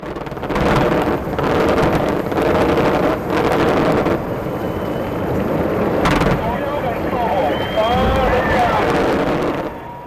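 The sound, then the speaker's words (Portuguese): A string of booming fireworks bursts, set off by an artist to create a rainbow, goes off in quick succession, echoing and crackling, with rising whistles near the end over a steady rumbling, windy background and faint indistinct voices. “Esses sons que você está ouvindo são de um arco-íris que ele criou com fogos de artifício.”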